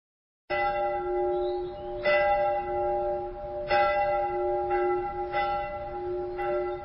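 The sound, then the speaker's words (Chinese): Distant church bells ring out, several overlapping strikes at an uneven pace, each blooming into a steady resonant hum that carries between them, with no voices present. “此刻，远处教堂的钟声重又响起。”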